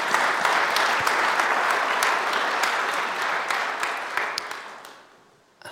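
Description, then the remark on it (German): Sustained applause from an audience after a personal testimony, a dense wash of many hands clapping at steady volume with a few sharper claps standing out, then fading off near the end. “Ein Applaus für dieses Zeugnis.”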